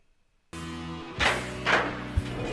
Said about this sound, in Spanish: Vamos a cerrarle toquecito a la puerta porque hace mucha bulla, muchacho. Pero toca muy bonito, oye. Pero toca muy chiva, pero vamos a cerrar la puerta.